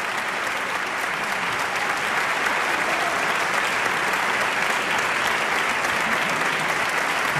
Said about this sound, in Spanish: están saludando aquí en el escenario principal del Teatro Colón. Escuchemos esos aplausos. Nosotros también estamos ahí.